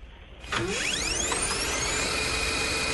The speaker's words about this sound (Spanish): Una fotocopiadora. Eh, yo creo que vale. Sí, una fotocopiadora.